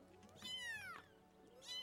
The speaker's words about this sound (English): it's like someone remixed cats having sex in an alley. but there's hundreds and hundreds of them constantly, just long, like all over.